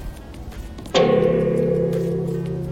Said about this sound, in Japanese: 効果音についてちょっとお話ししたいと思います。効果音は、えーと、と例えばあのガーンこんな感じ